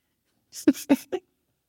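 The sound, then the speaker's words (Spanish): Dogs snoring: three short, rough snorting breaths in quick succession, each with a low buzzy rumble and airy hiss, then quiet. No one speaks. “Ah, es que los perros están roncando mucho y acá aquí para no interrumpir la grabación.”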